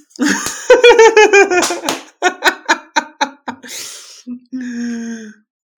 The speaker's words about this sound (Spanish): Monfo acaba de parecer un juez implacable y acaba de golpear el, martillo con sus manos